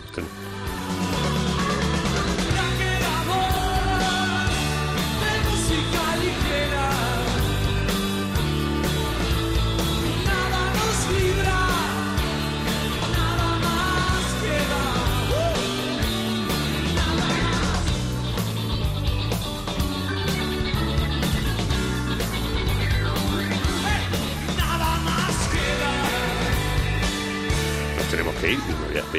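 An upbeat, danceable music track with a sung vocal line and guitar over a steady driving beat, playing loud and continuous for the whole stretch without any talking.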